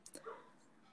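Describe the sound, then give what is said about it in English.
A dog gives a quick bark or two, short and sharp, with a soft yelping tone trailing off. “Our dog kind of likes to bark sometimes.”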